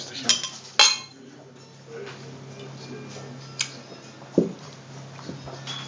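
Glasses clink together in a toast, a few sharp, bright taps spaced irregularly, over a low background hum.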